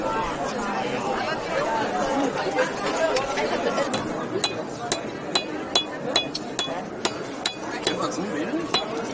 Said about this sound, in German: So, und was ihr jetzt hört, ist ein ganz typischer Sound hier auf dem historischen Weihnachtsmarkt. Wir stehen hier nämlich an einem Stand, wo Silberschmuck geschmiedet wird.